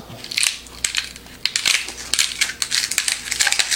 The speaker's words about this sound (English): This doesn't flex very much. This is a pretty sturdy ice cube tray. But just kind of shake, moving it back and forth, you can get the ice cubes out.